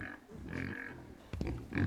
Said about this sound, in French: Oh, c'est hyper agressif, on dirait qu'il va tous les manger. Mais c'est un cochon C'est un porcelet